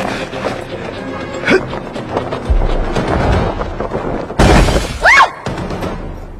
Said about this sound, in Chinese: 方文从天桥上纵身而跃，他重重地摔在了李米的出租车上。